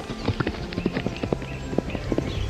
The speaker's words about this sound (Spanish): Una historia antigua nos habla de un anciano labrador que tenía un viejo caballo para cultivar sus campos. Un día, el caballo escapó a las montañas.